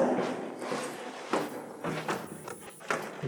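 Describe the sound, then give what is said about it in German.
A door opens with a few soft thuds and clicks, followed by scattered footsteps moving through it, as people pass from an exhibition into its study hall, all fairly quiet against a faint background hiss. “Und zwar müssen wir hier durch die Tür in unseren Studiensaal.”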